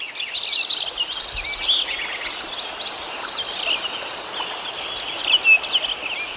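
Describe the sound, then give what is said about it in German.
A dense outdoor chorus of many birds singing and chirping at once, high trills and quick whistled notes overlapping continuously at moderate volume, with no talking. Recorded in 1988 at Lincoln Meadows in the Sierra Nevada, USA. Birds there included woodpeckers, mountain quail, Lincoln's sparrow and ruby-crowned kinglet, along with many insects. “Damals lebten hier unter anderem Spechte, Bergwachteln, Schwirr- und Dachsammern, die Linkenammer, das Rubingoldhähnchen und eine Menge Insektenarten.”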